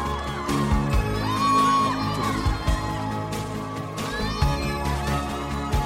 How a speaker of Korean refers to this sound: 우리 여러분 환호성 다 지르셨어요? 아직 모자르신 것 같은데요.